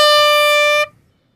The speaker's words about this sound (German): Auf äh, die Hupe.